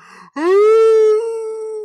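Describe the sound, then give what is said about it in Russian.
A person imitates a mournful howl, one long sustained wail that rises briefly and then holds steady, loud, after a short faint sound at the start. “И ты посмотри, на весь мир вой”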